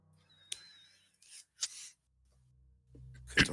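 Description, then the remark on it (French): Dice clack and rattle in a few short bursts, with quiet scrapes between, as a player picks up and handles dice during a tabletop game. “Euh, ah merde, j'ai gardé mes dés d'avant.”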